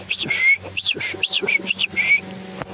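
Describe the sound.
A person whistles a quick, lively calling tune to call someone over, a string of bright, warbling notes in a rapid sing-song rhythm, loud and clear for about three seconds with no talking.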